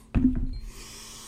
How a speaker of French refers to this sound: On respire on peut expirer aussi.